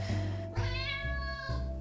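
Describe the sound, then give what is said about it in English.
Butter, an all-gray cat adopted from a shelter in North Carolina, meows insistently in the kitchen, asking for tuna: a few drawn-out, wavering calls running together with no pauses for anyone speaking. “trots into the kitchen, and tells me that she would like some tuna too, please”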